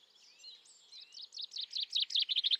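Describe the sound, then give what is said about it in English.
A chaffinch sings a bright, high-pitched song: an accelerating series of chirpy notes that grow louder toward the end, with no voices. “We've heard a chaffinch.”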